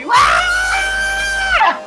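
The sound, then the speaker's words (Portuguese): A voice imitates the thin, high-pitched scream an Asian artist gives with each brushstroke: one sustained shrill cry rising sharply, holding steady for over a second, then dropping off, loud, with no other sound. “Cada vez que ele dá uma pincelada, ele grita. e ele grita fininho.”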